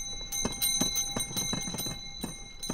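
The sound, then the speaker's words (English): Small ice cream cart bells jingle in quick, uneven bursts of bright strikes with a lingering metallic ring, steady in loudness, with no one talking, as carts ring out on Chicago sidewalks, parks and beaches in summer. “Yep, it's the season when these ice cream cart bells ring out in Chicago sidewalks, parks, and beaches.”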